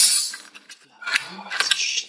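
A hissing, fizzing crackle in two bursts, the first at the start and a louder, denser one in the second half, bright and sputtering, with faint sounds underneath.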